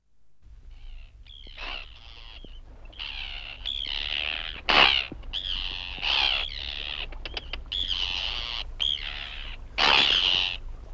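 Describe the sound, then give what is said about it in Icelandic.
Arctic terns, newly arrived from Africa, calling at Grótta and Bakkatjörn, a steady stream of harsh, grating screeches with two louder, rasping shrieks standing out, over a low steady rumble like wind or traffic. “hún flögum, flögraði og gargaði sprækur fuggl, ótrúlegur fuggl”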